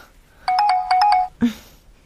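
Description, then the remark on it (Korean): A phone ringtone plays a bright, rhythmic burst of electronic tones for about a second, clearly audible, followed by a short muffled thump as it cuts off. “야, 전화 받아. 야, 이 시간에 누구야?”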